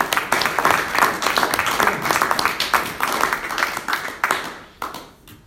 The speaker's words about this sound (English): Can we give her a round of applause, please?